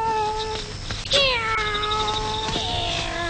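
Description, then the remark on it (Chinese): A cat meows in long, drawn-out yowls, its whining tone wavering and sliding downward, with a louder wail breaking in partway through. No one speaks. “我把猫哄走，你先睡吧”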